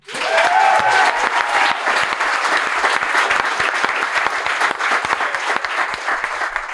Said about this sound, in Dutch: Geef me een applaus.